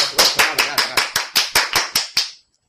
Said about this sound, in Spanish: Marina, por favor. Un aplauso a Marina.